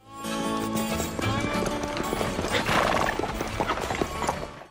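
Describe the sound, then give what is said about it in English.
Horse hooves clip-clop steadily along with a cart in a western town scene, mixed in with busy background noise, jaunty western-style music and what sounds like a horse whinnying, fairly loud throughout. “The episode opens up with a typical western scene the town, horse and cart, jaunty western style music”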